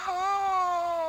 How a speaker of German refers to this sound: ich hätte noch eine, eine Eule für dich. Ich meine, gut, die, die Eule ist wirklich gut. Ja. Wer ging noch nie betrunken in Polen äh, mit einem Suchtdruck durch den Wald und hörte das hier? Schuhu.